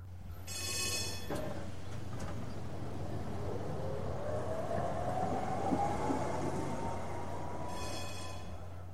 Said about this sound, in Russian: Под окнами звенел трамвай.